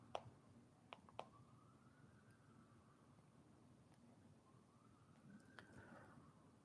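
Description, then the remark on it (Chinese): An ambulance siren passes along a street in New York, a faint wail slowly rising and falling in long sweeps over a low steady rumble, with a few sharp clicks near the start. “现在外面有警报，那可是救护车，救护车，千万不要听错了，这是救护车经过我们这一条街道，因为在几个布拉克之外有医院”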